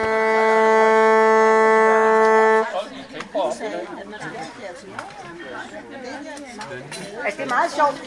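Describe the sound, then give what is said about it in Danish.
A single loud, steady horn blast, blown to signal a fifteen-minute intermission, holds one rich, buzzing note for about two and a half seconds, then stops abruptly, leaving a crowd chattering away with faint clinks of dishes. “Når man blæser i hornet til den anden pause, så snakker folk bare, bare videre.”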